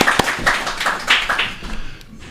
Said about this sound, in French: Eux aussi, je les applaudis. Bravo